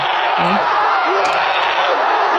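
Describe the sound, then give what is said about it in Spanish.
A cinema audience in Mexico watching Spider-Man: No Way Home screams and cheers in a loud, unbroken roar for the whole moment, a dense wall of voices with a few whoops rising above it. “vamos a escuchar cómo se pone la gente viendo Spider-Man No Way Home, porque de verdad es una locura. O sea, están gritando en el cine.”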